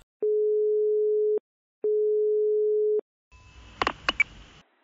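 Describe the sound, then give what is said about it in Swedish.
Two long, steady telephone tones at the start of a played-back phone call from a friend, each lasting over a second with a short gap between, followed by a brief burst of crackly line noise and clicks. “Eh, jag tänkte att jag skulle spela upp det samtalet så får ni höra lite.”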